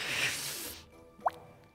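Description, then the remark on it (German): A steady hiss fades out, then a single small liquid drip lands with a short, bright plop, followed by quiet. It sounds like hot wax dripping off an object. “Ich halte sie etwas, etwas ungeschickt wie so ein Baby im Arm so so dass wirklich das Wachs, das tropft noch so nach, ähm, ja, dass es halt abtropfen kann.”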